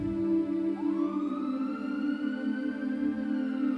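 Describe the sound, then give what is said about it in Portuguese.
An approaching ambulance siren wails by a snowy road, its tone sweeping slowly upward over a steady droning hum. It is loud throughout, with no voices. “Então, uma mulher pegou a sua cabeça, colocou em seu colo e disse: Não se preocupe, tem uma ambulância vindo.”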